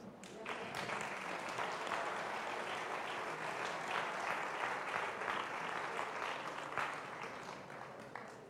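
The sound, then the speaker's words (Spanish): Steady applause from an audience, dense overlapping claps sustained for several seconds at an even level, with some voices mixed into the clapping. “Dele palmas.”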